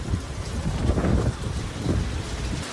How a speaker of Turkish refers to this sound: Şu an saat 3.28 hava karardı. Toz bulutu her yeri sarmış durumda. Dalga gibi ilerleyen kum fırtınası kısa süre içinde Polatlı ve çevre köylerin üstüne çöktü. Gündüz bir anda geceye döndü.